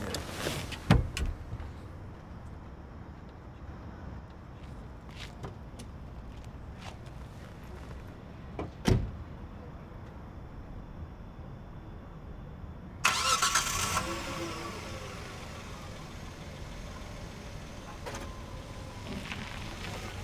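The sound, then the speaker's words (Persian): A car door thumps shut, followed later by another sharp thud, then an engine cranks and starts loudly and settles into a steady idle. Nobody speaks. “ماشین یکی هست دیگه آوردم که بریم”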